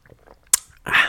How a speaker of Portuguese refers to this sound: não, ah, um golinho na água, porque hum, uma cena que eu tenho reparado que eu sempre que eu gravo um podcast eu fico bué seco, tipo, em questões de saliva.